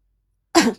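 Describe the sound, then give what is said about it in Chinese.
A single short, gruff cough, almost like a throat-clearing, bursting out after a stretch of silence and fading quickly, with no talking around it. “苏哲咳嗽一声”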